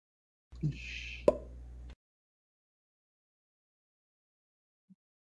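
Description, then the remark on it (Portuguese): A vacuum seal breaks at a machine's front door as it releases gas, a sharp pop amid a short rush of hissing air, lasting under two seconds, then quiet except for a faint tiny knock near the end. “Aí faz um barulho de vácuo sendo quebrado.”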